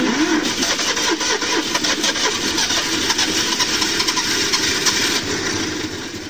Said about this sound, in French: je vais m'approcher du garage pour essayer de sortir la voiture. Si elle veut bien démarrer.